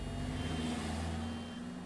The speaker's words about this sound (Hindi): office तक पहुंचने के लिए टैक्सी पकड़ी इतना ट्रैफिक लग रहा था जैसे पूरा शहर मेरी कलम को बिकने से बचाने की कोशिश कर रहा है